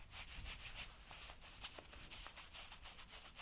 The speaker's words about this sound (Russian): Это мои пляжные шорты. Они шуршащие.